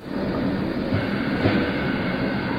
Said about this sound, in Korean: 오늘 들어볼 현장의 소리는 무엇일까요? 어, 섬유 공장에서 보내주신 음. 소리인데요. 오늘 좀 잘 들어봐야 될 것 같아요. 네. 그 이불 같은 거 염색할 때 네. 염색약 쓰이잖아요. 네. 그 가루가 가라앉지 않게 자석을 계속해서 돌리는 소리라고 하는데요.